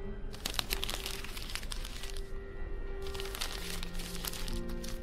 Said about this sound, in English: I heard paper being crumpled as Lash continued.